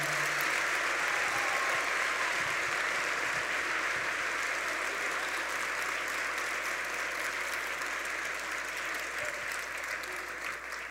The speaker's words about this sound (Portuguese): Será que você pode aplaudir Jesus bem forte aí onde você está?